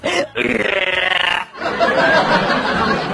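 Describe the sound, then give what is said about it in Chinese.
A loud, drawn-out burp from a heavyset man who had just eaten and drunk his fill, in an elevator, rumbles for about a second, then after a brief pause a second long, gravelly belch follows and carries on to the end. “这个时候呢，有一个比较肥胖的啊，酒足饭饱的家伙走了进来，打了一个响彻天际的饱嗝啊！”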